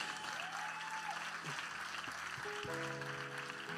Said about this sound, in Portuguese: Nós podemos dar uma salva de palmas.